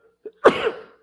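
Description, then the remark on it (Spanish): A single sharp cough or sneeze bursts out, preceded by a faint short intake, then trails off within about half a second; no one speaks. “¡Salud!”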